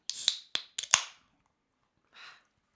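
A bottle cap is pried off a beer: a few sharp metallic clicks and a pop in quick succession, followed a moment later by a short, soft hiss of escaping gas.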